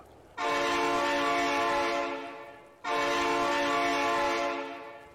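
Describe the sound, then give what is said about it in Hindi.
A train horn blares twice in long, loud blasts as the train approaches a bridge, each blast starting abruptly and tapering off, with a rich harmonic tone and a faint low rumble underneath. “एक बार और हॉर्न गूंजा”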